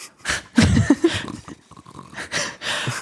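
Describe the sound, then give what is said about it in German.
A voice imitates snoring: two rough, breathy snorts, a loud rumbling one at the start and a softer one near the end, with quiet breathing between them, clear. “Hast du Schnarchgeräusche? Schlafgeräusche?”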